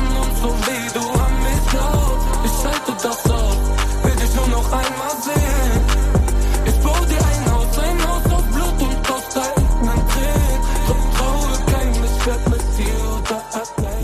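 A German rap song plays loudly and continuously, driven by a heavy, booming bass beat with steady percussive hits and dense layered music throughout, broken by a few brief drops in the low end.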